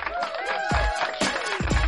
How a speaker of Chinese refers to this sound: 梆梆梆梆梆，掌声。